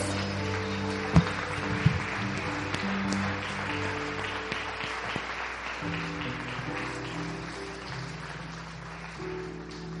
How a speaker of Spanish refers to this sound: Vas a darle un aplauso al Señor. Así es, así es.